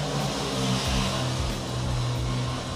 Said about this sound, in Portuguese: passando um carro.